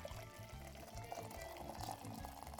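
Water in which porcini mushrooms had soaked is poured steadily into a bowl of vegetable broth while cooking a dish, a continuous splashing stream with a low, rhythmic gurgle running under it for a few seconds. No one speaks.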